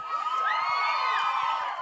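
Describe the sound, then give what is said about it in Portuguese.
A large audience of women, including unmarried ones, shouts and cheers loudly, high-pitched voices overlapping in a sustained, dense roar of whoops and screams that fills the whole moment without pause. “Ok, agora sim, até aquelas que não são casadas gritaram agora.”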